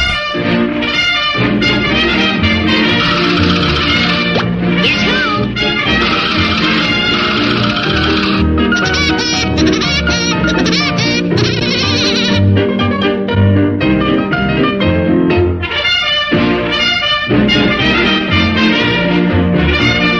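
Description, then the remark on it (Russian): Woody Woodpecker's signature laugh played as a loud, bright mobile ringtone, looping continuously for about twenty seconds with dense musical backing and no talking. “Второе место мобильного чарта сегодня занимает «Дятел Вуди» и его смех.”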